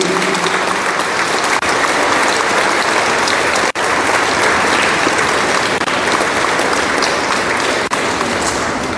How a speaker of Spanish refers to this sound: felicidades y un aplauso fuerte para todos los de la tercera edad, los abuelitos, que Dios los bendiga.